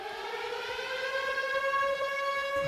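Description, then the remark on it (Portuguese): An alarm rings with a loud, steady electronic wail whose pitch creeps slowly upward, sounding continuously from start to finish with no one talking. “Ring alarme”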